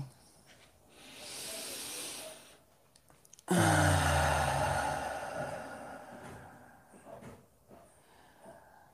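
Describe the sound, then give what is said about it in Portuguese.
A deep breath: a soft, airy inhale lasting a couple of seconds, a brief pause, then a long, louder exhale with a slight voiced sigh that slowly fades away. “Vamos fazer uma respiração profunda juntos, então.”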